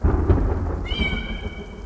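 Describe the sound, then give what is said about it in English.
A heavy rain downpour roars in a dense, steady hiss with a deep rumble underneath, while a drawn-out meow from a massive stray cat with a splash of white across its chest rises over it partway through. “peered out into the gray wall of rain that had descended from the heavens”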